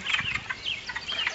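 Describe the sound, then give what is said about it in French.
A chorus of wood frogs at a forest pond gives short, duck-like clucking calls that overlap in a busy, steady stream, with no voices. “C'est le son des grenouilles des bois.”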